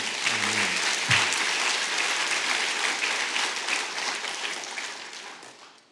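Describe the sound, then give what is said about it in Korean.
An audience breaks into sustained applause directed at the pastor who is speaking, a dense, steady wash of many hands clapping at once that holds strong for several seconds before gradually fading out at the end. “저를 향해서 지금 기, 박수를 하시지만 여러분의 기도란 기도 덕분이기 때문에 어, 여러분 자신을 위해서도 사실은 박수를 치신다고 하는 것이었습니다.”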